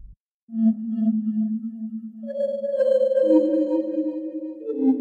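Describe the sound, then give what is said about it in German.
A slow electronic video game soundtrack plays: smooth, sustained synth tones glide from a low held note up through a few longer notes, clear and steady with no voices. “da habe ich ein anderes ausgewählt und zwar ist das der Titel Wandering Ghosts und den hören wir jetzt.”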